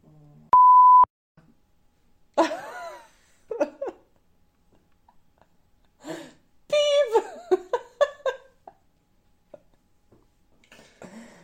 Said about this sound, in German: Ich pieps es raus.